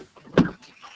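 Someone climbs into a car: a short, muffled thump and rustle of movement and the door, loudest around the middle, then quiet shuffling as they settle in. No one speaks.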